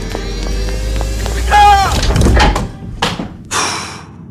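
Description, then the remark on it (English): A heavy door grinds open with a low mechanical rumble and a brief metallic squeal, followed by a few clunks and short hissing bursts as it settles. “Uh, good job getting the door open.”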